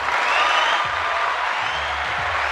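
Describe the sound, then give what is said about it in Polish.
One person claps steadily for the celebrities who had their own Coral brand ice creams, dense hand clapping through the whole short stretch, loud, with no voices over it and a faint low rumble underneath. “Bo to są fajne nazwiska, no dlatego biję im brawo.”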